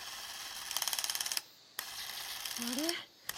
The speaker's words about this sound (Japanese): 突然撮影に使っていた8ミリカメラが不調をきたしたのです富士の ZC1000 という当時の最高級の8ミリカメラで今までに故障などしたことがありませんでした